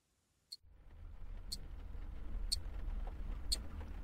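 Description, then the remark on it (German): Four sharp, evenly spaced ticks about a second apart ring out from a car's glove compartment over a low engine-like rumble inside the car, distinct. “Das Ticken aus meinem Handschuhfach holt mich aus meiner Trance.”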